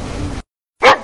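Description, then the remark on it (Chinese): A single sharp bark from a dog on a ship rings out after a stretch of steady low rumbling noise and a brief moment of silence. The bark is loud, short and mid-pitched. “听到船上的狗叫”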